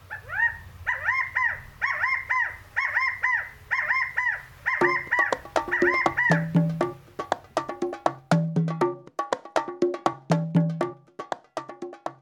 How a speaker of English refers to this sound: It's a rally cry, like the little California quails are yelling, In unity we triumph! Or maybe they just really like Chicago.